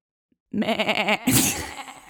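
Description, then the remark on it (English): A person imitates a goat with a single quavering, nasal bleat that wavers rapidly in pitch, then breaks into a harsher, breathy tail. It is fairly loud and heard alone. “I can do a goat.”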